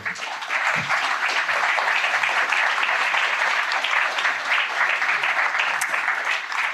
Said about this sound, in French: je pense qu'on peut les applaudir.